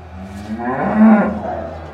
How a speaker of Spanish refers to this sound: El rey Einstein tenía una inesperada aliada de su parte, una vaca llamada Sibilja. Sí, una vaca. El mugido de la vaca ya causaba tal estruendo que desconcertaba a las tropas enemigas.